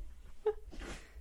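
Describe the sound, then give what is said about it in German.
A quick, fairly quiet sneeze: a short sharp intake-like burst followed by a breathy, hissing exhale, heard alone against low background rumble. “Gesundheit.”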